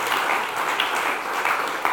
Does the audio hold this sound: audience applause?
yes